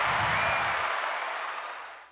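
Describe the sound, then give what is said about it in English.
A crowd applauding, a dense, steady wash of many hands clapping that holds for a moment and then fades out quickly, with no voices over it. “So give it up for la- ladies and gentlemen for Matt Browning, right?”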